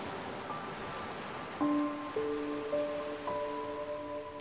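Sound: ocean waves rolling in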